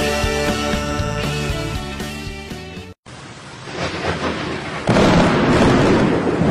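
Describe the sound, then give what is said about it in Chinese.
Music plays, then stops abruptly. A low rumbling roar builds, and a loud thunder crack bursts in as lightning strikes the roof of a house, followed by heavy, sustained rumbling with no talking. “咱家的楼顶儿又让闪电给劈了。”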